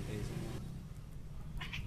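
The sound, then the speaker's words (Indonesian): A male cat lets out a low, drawn-out, agitated yowl, fairly loud, its growling tone sustained for nearly two seconds over some background noise. “kalau yang kucing cowoknya marah di sini berabe sih”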